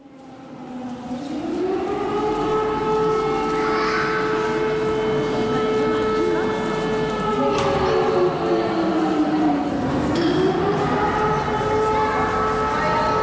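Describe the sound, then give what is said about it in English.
An air raid siren in the train station in Vinnytsia, where thousands of people wait, winds up and holds a loud, steady wail, then dips and climbs again, droning over a low rumbling background with no talking. “Uh, and for about the fourth or fifth time today, the air raid siren is going off.”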